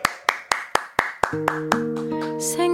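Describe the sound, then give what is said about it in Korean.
Sharp hand claps by a radio show host in a steady, even rhythm, roughly four per second, keeping time as a sustained musical accompaniment for a live performance fades in beneath them and the claps gradually blend into the music. “이제 박수와 함성이요. 제가 칩니다.”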